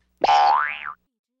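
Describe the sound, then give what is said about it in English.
A single springy cartoon boing sound effect for a hopping bug, its pitch holding steady and then bending up and back down, loud, lasting under a second with no voices. “A bug can hop.”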